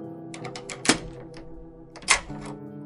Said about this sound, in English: After a while, Leela heard the clang of metal nearby as the jail door was closed, followed by the sound of keys locking up the door.